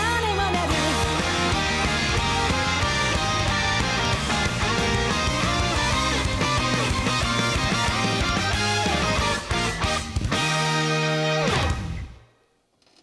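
A loud, dense Japanese rock band song, an anime opening theme, plays with driving drums, heavy distorted guitars and bass, building to a full-band hit before the music cuts off and rings out into silence near the end.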